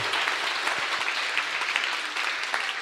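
A group claps together in a steady, dense burst of applause that holds at an even level for a few seconds, with no voices rising above it.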